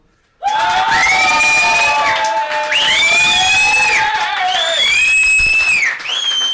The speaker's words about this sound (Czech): No, takže, dámy a pánové, kdo si myslí, že jsem vyhrál já, udělejte hluk.